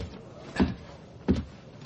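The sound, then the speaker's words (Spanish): A door is handled, making two short wooden clunks less than a second apart over a quiet, low background rumble, with no one speaking. “Sorengen sonríe y se dirige a la puerta.”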